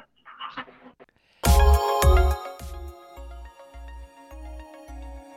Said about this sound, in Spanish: Siempre que pasa, siempre que pasa, me pasa esto. Cuando termino la llamada, se dispara la música. Discúlpenme ustedes.